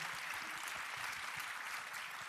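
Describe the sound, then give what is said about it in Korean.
Steady audience applause fills the whole stretch, a dense, even wash of many hands clapping at a constant loudness with no voices standing out. “박수 한 번 좀 네. 부탁드리겠습니다.”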